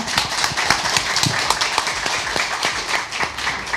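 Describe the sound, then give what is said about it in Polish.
An audience at a festival meeting applauds author Marek Stelar, winner of the Nagroda Wielkiego Kalibru for the book Krzywda: a dense, steady clatter of many hands clapping at once, sustained and fairly loud throughout with no talking over it. “Y, brawa.”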